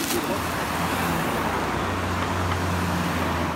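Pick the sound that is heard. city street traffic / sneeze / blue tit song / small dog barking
city street traffic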